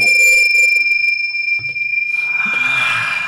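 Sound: bell ringing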